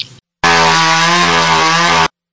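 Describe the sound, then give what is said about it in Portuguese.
A chainsaw roars loudly, holding a steady, buzzing engine drone for about a second and a half after a brief opening sputter, with no voices. “Só Cara, aliás, motosserra é legal.”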